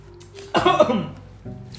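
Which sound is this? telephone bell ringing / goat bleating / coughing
coughing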